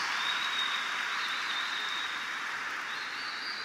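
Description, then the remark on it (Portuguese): A church audience applauds in a steady, dense wash of clapping that holds evenly for several seconds, with a thin, high tone running faintly above it. No one speaks. “Podeis assentar e vamos aplaudir mais uma vez.”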